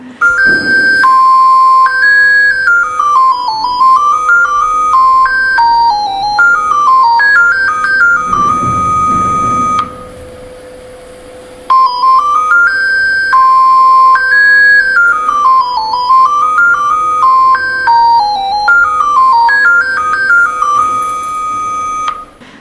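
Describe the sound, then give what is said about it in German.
A loud, very long electronic telephone ringtone, likely from an analog phone rather than a mobile, plays a bright, beeping melody that rises and falls in a repeating pattern, pauses briefly, then starts the tune again. No one speaks. “es ist ein Klingelton, aber von einem wahrscheinlich analogen Telefon, also jetzt nicht das Handy”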